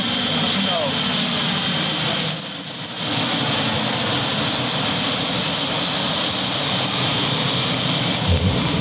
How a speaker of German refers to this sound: Warte, warte. Ja, da, äh, und klassisch zum P1 haben wir jetzt natürlich auch den Flieger, der im Anflug ist. Und auf die Südbahn gehen, da wäre nicht so laut.